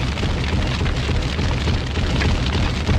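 A MOAB bomb explosion sound effect: a deep, rumbling roar, loud and sustained for about three seconds with a steady, crackling texture rather than a single sharp blast; no voices are heard.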